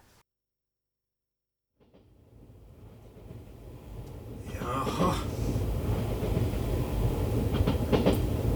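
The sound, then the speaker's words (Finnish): After a brief silence, a 1980s train rumbles up and keeps rolling steadily on its rails, a loud low-frequency roar with faint rhythmic clatter, and a short spoken word near the start. “hyvin käy niin jopa 1980-luvulla, jolloin saamme mielenkiintoisemman junan äänen.”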